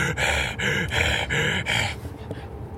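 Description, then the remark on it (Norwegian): A voice imitates the heavy, rapid panting of running: about five loud, breathy gasps in a steady rhythm, then trailing off into quieter breathing. “Og så bare hører han pesen.”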